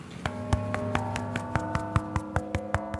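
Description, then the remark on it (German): The large St. Ulrich und Afra bell, 4420 kilograms, cast in 1948 by the Kuhn Wohlfahrt foundry in Lauingen, struck in its bell chamber with quick, light taps in a steady rhythm, about fourteen strikes in three seconds, its deep partials humming continuously underneath, fairly quiet with no voices. “Wir sind jetzt in der Glockenstube angekommen und stehen vor der großen St. Ulrich und Afra-Glocke.”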